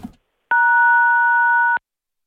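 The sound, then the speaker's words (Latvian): A single phone keypad tone as a caller presses the buttons on his phone during a call, a steady electronic beep held for just over a second, loud and clear over a quiet phone line with no talking. “Pilnīgs trakums tur skanēja vien, vienīgi pīpī, pīpī.”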